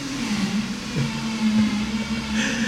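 An industrial blender drones steadily in the background at a place in Heredia, Costa Rica, where people have come to eat lunch. A continuous motor whir with a low hum holds through the whole stretch, with a brighter grinding hiss rising near the end.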